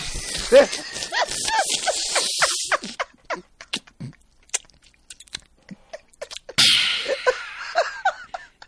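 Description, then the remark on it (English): A voice mimics an exaggerated, loud slurping sip of water: two breathy, hissing bursts separated by a stretch of small mouth clicks, mixed with laughter. “It's just uh, my mic picks up a lot, and I'm really afraid that like a sip, a, a simple sip of water is just going to be like.”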